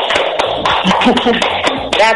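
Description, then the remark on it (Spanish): Steady rhythmic clapping, moderately loud, keeps time under voices that run through the whole stretch. “ya se oían hasta aplausos por ahí, ¿eh?”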